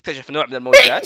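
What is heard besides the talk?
sneeze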